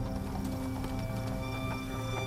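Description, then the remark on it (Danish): Steady clip-clop of horse hooves pulling a horse-drawn wagon as a bound man is driven away in it, with creaking and rattling mechanical sounds underneath, a continuous moderately loud rhythm. “Og imens hans kone forfærdet sætter til med den lille baby på armen, slæber de til sidst Matt ud af døren, binder ham og smider ham op i deres hestevogn.”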